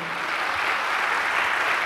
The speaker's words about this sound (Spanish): Denle un aplauso por eso a nuestro Dios eterno.